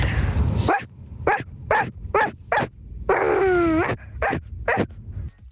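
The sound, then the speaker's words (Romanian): A person imitates a puppy, giving a quick series of sharp barks with a drawn-out whining yelp in the middle, then a few more barks. “Cățel!”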